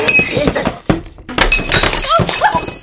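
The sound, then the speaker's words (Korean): An expensive Swiss-made crystal glass water bottle hits the floor with a solid thunk, followed by bright clinks and shattering glass, while a voice cries out over the breaking. “아니 깨졌잖아. 어떡하니. 아니 어? 스위스제 비싼 크리스탈인데.”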